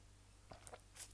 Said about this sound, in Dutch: Even een slokje.